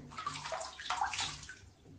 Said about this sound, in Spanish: Agua. Agua. Agua.